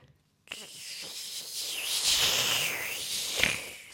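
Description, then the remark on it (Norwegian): A voice imitates someone riding a sled past a microphone, with a breathy, hissing whoosh that swells as it comes near the microphone, holds steady, then trails off as it disappears, with a brief louder puff near the end. “En eh, kjører forbi med akebrett, så du får liksom lyden av at de kommer nært mikrofonen, og så forsvinner de igjen”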